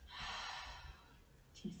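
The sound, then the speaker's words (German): A long, deep breath pushed out slowly, a soft airy rush that swells and then fades over more than a second, with no talking; a deep exhalation during a guided breathing meditation. “Atmet tief ein und wieder aus”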